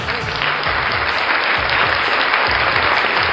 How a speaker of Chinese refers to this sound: 你们不感觉此处该有掌声吗？你不感觉此处该有激烈的掌声吗？